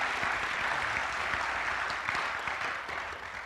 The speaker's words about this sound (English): So, let's give them another hand. They've been excellent.